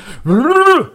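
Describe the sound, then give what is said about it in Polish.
A voice imitates a shaking or mixing noise as one sustained, rising-then-falling vocal sweep lasting under a second, with a faint breathy lead-in before it. “to był odgłos y, trzepania, tudzież mieszania i wyszła wybuchowa mieszanka znowu.”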